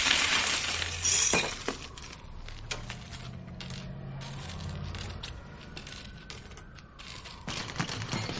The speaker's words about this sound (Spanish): En su casa de noche cena el filete que recogió, vuelca un tarro lleno de monedas sobre la mesa.